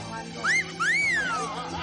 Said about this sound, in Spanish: Vuelve a salir y le silba, aunque ella no voltea.